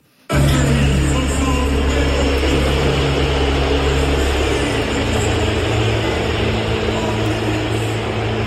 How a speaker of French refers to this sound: l'arbitre néo-zélandais Ben O'Keefe, qui était de retour d'ailleurs au sifflet hier soir au Stade de France. Voici comment il a été accueilli avec des sifflets, normal, il est au sifflet, à l'annonce de son nom par le speaker.